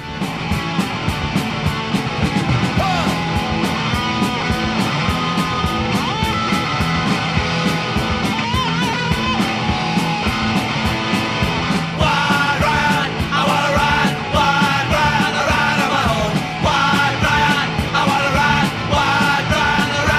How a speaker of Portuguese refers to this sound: a gente vai ouvir essa gravação clássica, agressiva, um canto na guitarra, letra crua direta.